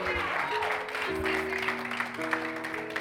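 A church audience claps steadily for Christ in a dense, continuous wash of applause, while sustained organ or keyboard chords hold underneath throughout.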